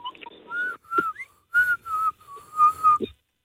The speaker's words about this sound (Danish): Ja. Det er bare hurtigt og tør for luft, ikke? Det bliver en meget kort fløjten.